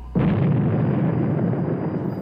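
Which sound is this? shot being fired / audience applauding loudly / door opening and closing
shot being fired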